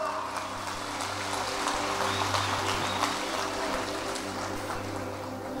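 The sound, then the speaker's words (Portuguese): A large audience applauds for Jesus steadily for several seconds, a dense, even wash of many hands clapping at once, with a low hum of the room underneath and no voices standing out. “Uma salva de palmas para Jesus, pode dar.”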